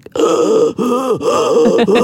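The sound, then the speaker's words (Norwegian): A person imitates heavy, gasping breaths, three or four loud voiced pants in quick succession, each with a strained, groan-like edge, with no other talk. “Jeg puster sånn.”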